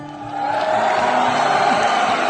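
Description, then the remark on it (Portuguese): A newsroom staff bursts into applause and cheering for a colleague's birthday, with whoops and shouting voices blending into a loud, continuous roar of excitement that holds steady for a couple of seconds. “Cadê a salva de palmas?”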